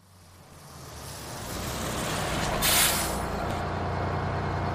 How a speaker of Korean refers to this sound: 네, 버스가 왔네요. 버스는 한강을 가로질러 반포대교를 지나게 됩니다.